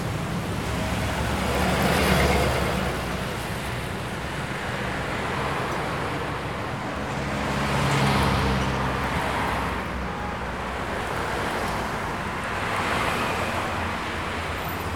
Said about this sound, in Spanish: Y pues vamos el tráfico de la calzada Colón. Vamos a escucharlo un poco más.